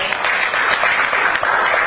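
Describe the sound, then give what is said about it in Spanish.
A crowd applauds Professor Benito Guarachi steadily, many hands clapping at once in a dense, even wash of sound with no pauses and no voices. “Yo quiero pedirle un fuerte voto de aplauso al profesor Benito Guarachi, que de manera desinteresada”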